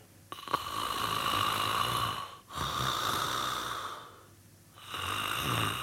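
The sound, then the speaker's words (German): A person demonstrates snoring with three long, rasping breaths, steady and separated by brief pauses, with no speech during the sounds. “sondern auch für denjenigen, der schnarcht an sich. Ja, ich mache das gerne einmal kurz vor.”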